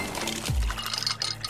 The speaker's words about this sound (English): Those are the sounds of the Samsung Bespoke Refrigerator's beverage center with internal water dispenser and built in pitcher with flavor infuser for crisp, refreshing water.